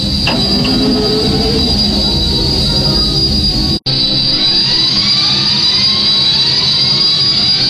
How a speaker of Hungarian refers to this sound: Ugye, hogy egymás mögött szépen sorakoznak az X-wingek, mennek a halálcsillag felé, és akkor szétnyílnak a szárnyak, ennek teljesen új hangot adtak a mono változatban.